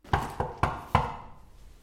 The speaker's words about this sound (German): Es hat geklopft. Wir haben es gehört. Ja, Wer kann denn das jetzt sein? Mir egal. Das wird doch wohl hoffentlich kein Schüler sein.